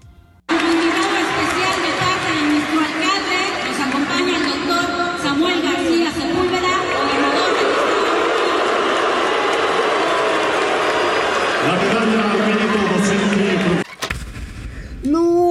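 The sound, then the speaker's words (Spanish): A large crowd boos Governor Samuel García loudly and without letup for about thirteen seconds, a dense roar of voices with long, low droning boos rising and falling before it cuts off abruptly. “Oye, qué pinche abucheo tan culé, ¿eh?”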